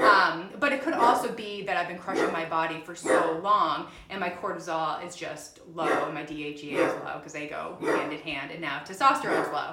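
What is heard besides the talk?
dog barking outside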